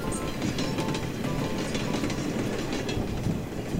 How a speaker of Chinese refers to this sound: 它是火车。真的，不管天气多么冷，雨下得多么大，温暖干爽的午夜火车准时出发。银闪闪的车轮。在铁轨上轰隆隆转